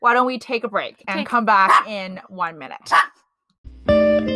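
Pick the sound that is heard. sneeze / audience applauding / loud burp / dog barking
dog barking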